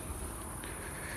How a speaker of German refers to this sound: Man hört die Grillen zirpen. Ich laufe ja hier an einer Allee entlang am Neckar in Mannheim. Hier sind sehr alte Bäume, sehr hohe Bäume.